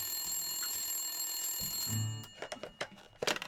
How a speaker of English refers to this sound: Oh, hang on, hang on, the phone's calling. I gotta, I gotta take this. Okay, hang on a second.